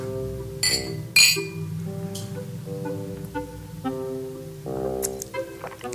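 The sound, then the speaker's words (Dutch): Glasses clink together in a toast at a Christmas dinner, two bright, ringing chimes near the start, followed by fainter light taps over a warm, humming background. “Hé, hey, proost”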